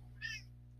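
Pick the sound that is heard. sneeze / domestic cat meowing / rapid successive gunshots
domestic cat meowing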